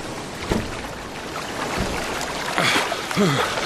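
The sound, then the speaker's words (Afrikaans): Two dull, separated thumps of a fist striking the hull of an overturned boat in the dark, heard over a steady wash of wind and water, followed by a voice calling out near the end. “Slaan met jou vuis teen die boot. Dat ek kan hoor waar jy is.”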